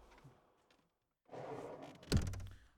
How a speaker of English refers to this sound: All right, and we're back, and let me shut the door.